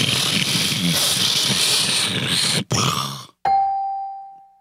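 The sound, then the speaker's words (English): A voice imitates a SpaceX rocket booster landing after sending satellites into orbit: a loud, rushing roar for nearly three seconds, a brief sputter and a sudden cut, then a single bell-like tone that rings out and fades. “Oh, nice, nice sound effects there. I just wanted to re. I wanted to make sure I recreated for the listeners exactly what happened.”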